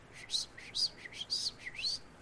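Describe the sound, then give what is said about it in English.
Someone on a front porch whistles an imitation of a bird call to a little bird eating food: four quick, rising chirpy notes in a steady rhythm, clear, with no talking. “and all of a sudden it's like I see a little bird like eating some food, and I I just start like whistling to it, you know, like you know like just a random bird call like like”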